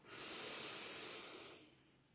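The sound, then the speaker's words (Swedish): A slow, deep breath drawn in through the nose during a guided relaxation exercise, a steady airy rush that lasts well over a second before tapering off, clear with no talking. “När du andas in, spänn dina ben.”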